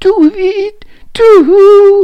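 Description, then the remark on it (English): A single voice gives two drawn-out, sliding hoots, imitating an owl, with a short gap between them; the second call is longer and dips in pitch before leveling off. “Then he heard some owls hooting in the trees.”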